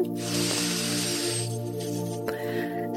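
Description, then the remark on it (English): A long, breathy exhale through the mouth after a deep breath in through the nose, during a guided relaxation: a steady airy rush that fades after about a second and a half, over a soft, sustained musical drone. No one speaks. “And we're going to take a beautiful, deep, healing breath in through our nose and out through the mouth, breathing in”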